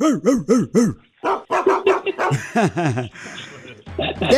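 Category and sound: animal, small dog barking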